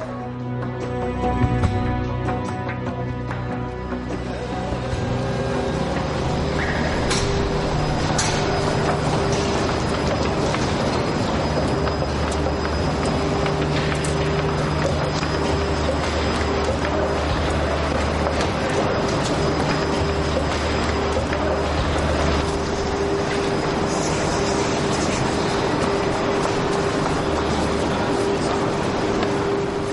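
A train car rolls steadily along the rails for the whole stretch, a dense continuous rumble with low droning hum and faint metallic clatter, loud.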